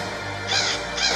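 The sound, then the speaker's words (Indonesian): Two harsh, raspy crow caws in quick succession, loud, with a short gap between them and no voices. “Kakak, itu suara gagak.”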